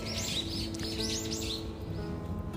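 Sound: birds chirping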